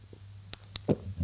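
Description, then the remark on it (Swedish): A single quiet gulp of a drink, with a couple of small wet mouth clicks just before the soft swallow sound. “Nej, men det, är det är liksom en helt vanlig klunk när man dricker en klunk.”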